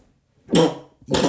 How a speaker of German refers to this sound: Gesundheit.